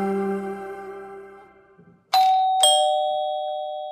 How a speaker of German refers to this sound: Ding dong.